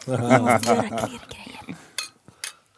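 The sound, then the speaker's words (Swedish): Voices overlap at the start, then two crisp glass clinks ring out a moment apart, like glasses touched together in a toast. “Jag måste tänka på ljudeffekterna ja.”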